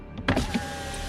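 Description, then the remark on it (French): A car's rear power window hums briefly as it slides open just a little, a short motorized whir with a soft clunk, over a steady low background rumble. “je pense que au moment où il pose la question, il y a la fenêtre arrière de la voiture qui s'entrouvre à peine.”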